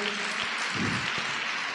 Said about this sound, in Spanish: Puede decir amén, denle un aplauso a Dios si puede hacerlo, hágalo.